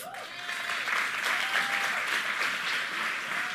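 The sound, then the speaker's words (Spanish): A crowd of people claps steadily and loudly for several seconds as applause for the staff team, a dense, even wash of applause with a few faint whistles or cheers rising through it. “Un aplauso para el staff.”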